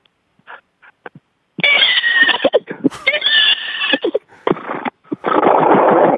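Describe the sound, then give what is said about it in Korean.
A person imitates a horse whinny as an encore after winning a contest, with loud, strained, squealing bursts, a few short vocal sounds at first, then long wavering neighs and a final harsh, breathy stretch, alone. “자, 이, 우승하셨으니까 앵콜로 말소리 내면서 이 시간 마치도록 하겠습니다.”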